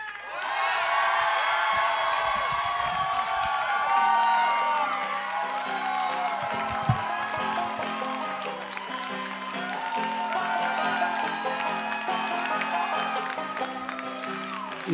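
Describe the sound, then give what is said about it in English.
An audience cheers and applauds itself for being part of history, for the whole stretch, a dense, steady roar of clapping threaded with high whoops and shouted voices that barely lets up. “But um, please give yourselves a round of applause for being part of history.”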